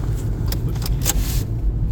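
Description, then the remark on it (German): A car drives along on a return trip with a steady, loud low engine and road rumble, plus a few brief rattling clicks over the top. No one speaks. “Gut, wir sind auf der Rücktour mit dem Auto.”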